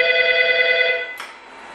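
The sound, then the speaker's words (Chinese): A police station's alarm telephone rings with a steady, buzzy electronic tone for about a second, then cuts off abruptly with a short click, leaving faint quiet. No one speaks. “此后，接听丢失三元催化器的报警电话就不再是偶然。”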